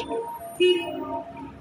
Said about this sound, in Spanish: hay más tráfico.